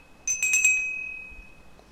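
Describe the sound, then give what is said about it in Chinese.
A small bell at a farm gate is pulled and rung in a quick burst of four bright strikes, leaving a clear high tone that rings on and fades slowly, followed by a faint click at the end. “这一回还没有进到农场里面，他就拉一拉农场门口的铃铛，”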